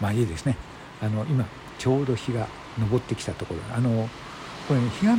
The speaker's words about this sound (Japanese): 皆さん聞こえますでしょうかこれあのリアルな波の音を、えー、バックに今日は収録をしております